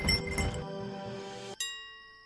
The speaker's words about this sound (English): Let's compare bells to see whose work better. Okay, said Wukong. You go first. I was planning to, said the demon. He shook his bells.